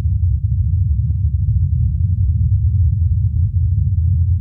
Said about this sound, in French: et suivre les décollages et atterrissages du drone qui l'accompagne.